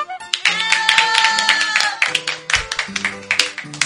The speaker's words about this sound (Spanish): vamos a pedir pues acá que todos los jóvenes del estudio pues le brindemos fuertes aplausos al maestro. Merecidos aplausos amigos, pero de repente lo pueden hacer más fuerte.